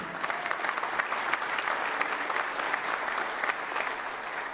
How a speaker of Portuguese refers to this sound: A raiz, pode aplaudir o Senhor, você começou.